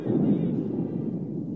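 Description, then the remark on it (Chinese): A deep, rolling rumble of thunder with lightning fills the whole moment, loud and steady with a gritty low roar that barely fades, no voices over it. “电光越来越强，塔米诺和帕帕基诺都被闪电的光芒照得睁不开眼。”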